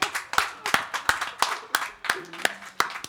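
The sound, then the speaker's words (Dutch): A small group claps in a brief round of applause for the walkers, the sharp claps landing in a quick, slightly uneven rhythm, with faint voices murmuring underneath. “Een klein applausje voor de wandelaars.”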